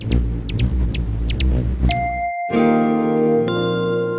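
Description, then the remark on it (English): A stylized sound effect of a hummingbird pollinating, used as the CharityVillage logo sound: a low, whirring wing hum with a few quick high chirps, then bright chiming tones ring out and sustain to the end. No one speaks. “That's the sound of a hummingbird pollinating our world and making it a better place.”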